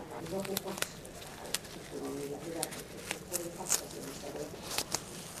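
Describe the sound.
Medical tape being peeled off skin during a care visit in several short, crackly tugs, each a quick ripping rasp, with soft murmuring voices underneath.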